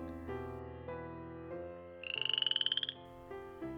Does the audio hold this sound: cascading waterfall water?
no